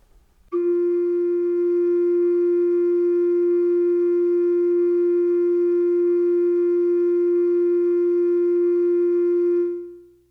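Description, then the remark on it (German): A single sustained flute-like tone on a long note A, played as a reference tone for a singing exercise, held steadily and loudly for about nine seconds before fading out, with no voices or other sounds. “So, ich habe hier einen Flötenklang gefunden und den spiele wähle ich dir jetzt rein. Dieser Ton auf ein langes A.”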